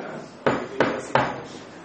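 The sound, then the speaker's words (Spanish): Three sharp knocks on a car window by people approaching from the sides of the car, evenly spaced about a third of a second apart, each a crisp rap that stands out clearly over a low background murmur. “y nos hacen así en la ventanita del auto.”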